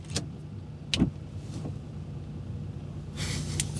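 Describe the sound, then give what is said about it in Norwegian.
A Fiat Panda Cross car drives by over a steady, low engine rumble, with a few short breathy bursts and a louder rush of road noise near the end. Nobody speaks. “Fiat Panda Cross.”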